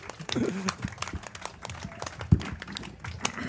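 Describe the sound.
A short burst of applause from a small group, dense irregular hand claps running steadily throughout, with some voices and a brief cheer mixed in underneath.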